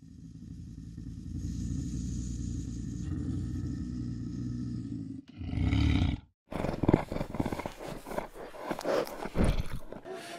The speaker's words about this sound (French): notamment une femelle qui est venue dans mon dos parce que j'étais sous mon filet de camouflage et elle savait pas ce que c'était et elle a commencé à grogner dans mon dos mais on était, elle était à 7 mètres de moi.